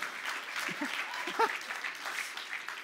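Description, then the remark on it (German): An audience claps for a man brought up on stage, a dense, continuous patter of many hands, with a few faint voices and a brief whistle-like cry rising over the applause. “Gib ihm Applaus.”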